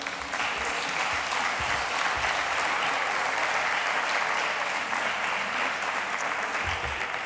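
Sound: audience applause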